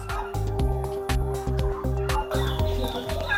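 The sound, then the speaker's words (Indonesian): A flock of turkeys on a turkey farm gobbles and clucks continuously in a pen, their overlapping calls busy against a steady low background hum. “Di tempat ini kalkun dibagi menjadi dua. Pertama kandang pedaging yang diisi oleh kalkun jantan dan kalkun betina yang tidak lagi bertelur.”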